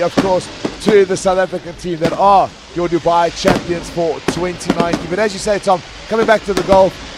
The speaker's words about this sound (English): And as the fireworks start uh, taking off here to Dubai Sevens, you can hear it there in the background.